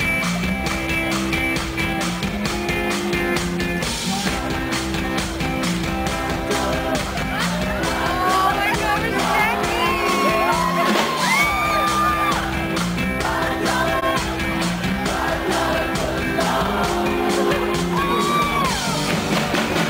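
A rock band plays the Subway jingle live: driving steady drums, dense loud guitars and a sung vocal melody, with shouts and crowd noise mixed in throughout.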